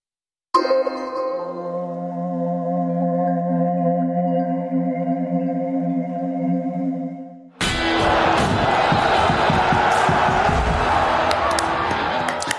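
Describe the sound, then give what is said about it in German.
A sustained, bright musical chord holds for several seconds, then cuts abruptly to loud, dense audience applause and cheering for the opening of a Bundesliga football talk show, carrying on steadily to the end. “Das ist wie immer euer Applaus für diese richtige Entscheidung, eingeschaltet zu haben beim einzig relevanten Fußballformat.”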